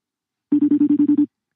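A telephone rings in one short burst of rapid, evenly pulsing electronic trills, about eight quick beats, clear and fairly loud, with no talking over it.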